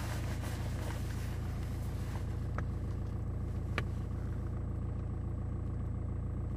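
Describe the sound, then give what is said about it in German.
A bus drives up, its engine droning steadily, a low continuous rumble with a few brief clicks and knocks on top, and no one talking. “Jetzt kommt hier natürlich auch noch der Bus hochgefahren, meine Güte.”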